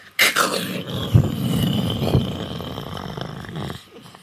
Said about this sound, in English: And thunder is the sound that happens, like that.